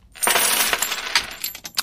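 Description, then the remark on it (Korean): A cascade of many coins pours out and clatters together in a dense metallic jingle, tapering into scattered clinks as the last ones settle. Fairly loud, with no voices. “동전이 엄청 쏟아지네요.”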